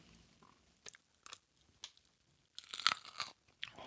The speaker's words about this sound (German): Kannst du auch so richtig reinbeißen, dass er das knackt?